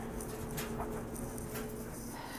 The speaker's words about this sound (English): Ignore my loud dryer.